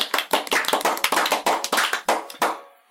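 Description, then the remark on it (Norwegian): A brief burst of audience applause: many hands clapping together in a dense, uneven patter for a couple of seconds before it quickly dies away. No one speaks. “Kort applaus først, på...”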